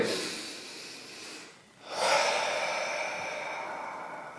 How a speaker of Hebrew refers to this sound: אפשר לעשות תרגילים, נשימות. קחו עכשיו איתי כמה נשימות, בואו בוא נהנה קצת מהיכולת הטבעית שלנו, קחו מהאף ותוציאו מהפה.